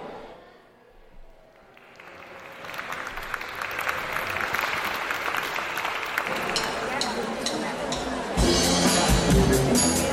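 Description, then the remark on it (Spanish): An audience bursts into applause welcoming the Vibras Ensemble, a brass and percussion group from the Conservatorio Profesional de Música de Palencia, starting quietly and swelling into sustained, dense clapping that grows louder toward the end, with some crowd noise mixed in. “Por favor, reciban con un aplauso al Vibras Ensemble.”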